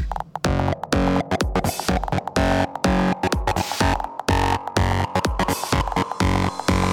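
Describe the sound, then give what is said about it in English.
Loud electronic music saturated with heavy, gritty distortion, its dense buzzing tones chopped into a pulsing, stuttering rhythm with brief gaps, filling the whole spectrum with no voices. “Okay, now we need some fat distortion.”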